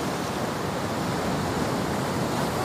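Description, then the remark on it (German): Rough, foaming sea waves roar around a ship in a dense, continuous wash of surf with no pause, loud, churning steadily like a storm-whipped ocean. “Ich lief zum Achterdeck und als ich über die Reling schaute, sah ich einen Mann in der schäumenden See um sein Leben kämpfen.”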